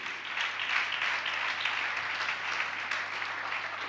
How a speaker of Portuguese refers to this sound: Podemos aplaudir a palavra de Deus e decidir Eu la recebo hoje.